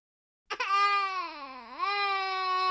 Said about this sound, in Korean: 케이퍼와 정어리 사이에서 아이가 징징거린다. 그칠 생각을 안 한다. 울음을 멈춰! 나쁜 남자는 울지 않는다.